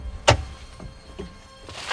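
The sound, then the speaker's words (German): A van's rear door opens with a sharp metallic clunk of the latch, followed by softer mechanical rattling and a final sliding scrape as the door moves. It is clear, with no talking. “Ich öffne jetzt die hintere Tür,”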